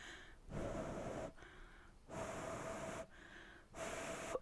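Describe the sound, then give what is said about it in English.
A voice imitates slow, heavy, creepy breathing into a phone: three long, loud inhales and exhales with a faint whistling edge, separated by brief pauses. “He's breathing into the phone.”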